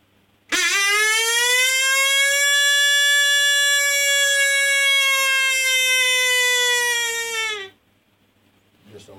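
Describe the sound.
A predator call imitates a coyote's long interrogation howl: one loud, reedy, sustained tone lasting about seven seconds, holding a steady pitch before drooping slightly and cutting off, with no talking.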